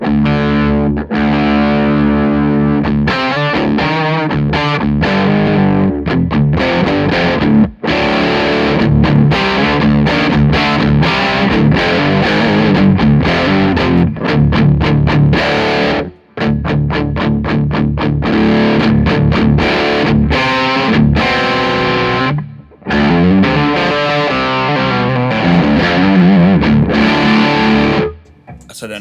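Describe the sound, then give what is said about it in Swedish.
A heavily distorted electric guitar plays loud, dense riffs through a Marshall amplifier with a boost pedal switched on and turned fully up, giving sustained crunchy chords and brief pauses, continuing for about half a minute. “Eh, och sen så kan vi, nu är det bara Marshall och sen så sätter vi på den.”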